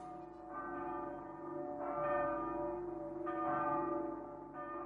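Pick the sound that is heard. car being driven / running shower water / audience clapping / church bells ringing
church bells ringing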